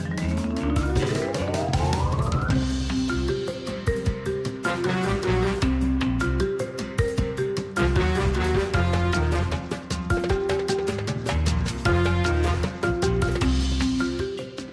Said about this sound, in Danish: Her kommer øh, dens øh, temamelodi til det her spil,